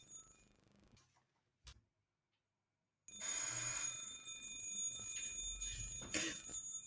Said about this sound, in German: Ich finde es sehr schön, dass jetzt in diesem Moment jemand draußen bei mir mit einem Glöckchen läutet und das dann so zart geil. und lieblich und friedlich.